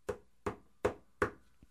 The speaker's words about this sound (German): Jo, ich klopfe einfach mal. Okay, du klopfst.